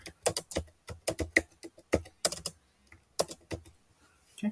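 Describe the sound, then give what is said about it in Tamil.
Quick typing on a computer keyboard, entering the channel name "Grow with Digital Experts" into a YouTube search: a run of sharp, irregular clicks in bursts, with a brief pause partway through before a few more keystrokes, and no voices. “இப்போ உங்கள் channel name என்ன அப்படின்னா அந்த சேனல் நேம் இங்கே கொடுங்க இப்போ நான் வந்து க்ரோ வித் டிஜிட்டல் எக்ஸ்பர்ட்ஸ்னு கொடுக்குறேன்”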